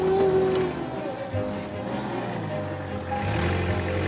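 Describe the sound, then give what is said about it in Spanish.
A heavy tractor engine rumbles and strains steadily as it rams a tree trunk with a toothed blade in a fruit orchard, with grinding, scraping noise and brief tonal squeals of its wheels skidding under load, fairly loud throughout. “Las ruedas del tractor derrapan.”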